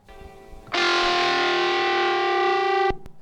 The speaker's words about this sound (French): D'abord, on va s'écouter une petite virgule pour rappeler sur quelle radio on est déjà.